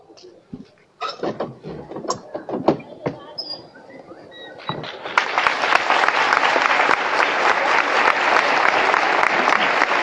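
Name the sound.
crowd applauding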